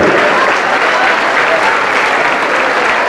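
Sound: church audience applauding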